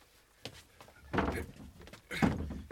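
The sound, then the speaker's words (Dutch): Two heavy, muffled thumps about a second apart, a door to a room, just unlocked, being shoved against a chest of drawers barricading it that won't give, with faint scraping and creaking between the pushes. “Het gaat niet, sir. Er is geen beweging in te krijgen. Er schijnt iets tegenaan te staan.”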